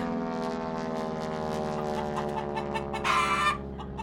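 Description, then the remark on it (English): Hens cluck steadily in a busy barnyard chorus, and a loud rooster crow rises over them near the end before the clucking carries on. “He said, You know, you completely ruined my poultry farm. My chickens died of fright.”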